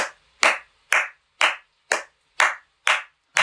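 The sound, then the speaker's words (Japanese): Eight sharp, loud hand claps in a slow, even rhythm, about two per second: the eight-clap ceremonial clapping practiced at Ise Grand Shrine (Ise Jingu), each clap crisp and separated by brief silence, with no talking. “八杯、八拍手。八拍手。”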